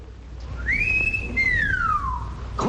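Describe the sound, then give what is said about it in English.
A loud, clear wolf whistle: one quick upward swoop followed by a long, slow downward glide, heard alone over a faint low background rumble. “And off in the distance, we hear the call of the wolf.”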